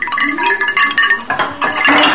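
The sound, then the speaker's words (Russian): Wooden bells ring out in a quick series of knocking strikes, each with a short bright tone that hums briefly before fading, the notes overlapping in an uneven rhythm. “Это деревянные колокола, можно сказать”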